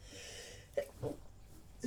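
A woman sneezes quickly and fairly quietly in a couple of short, breathy bursts, followed by another brief snort-like puff near the end, with no talking.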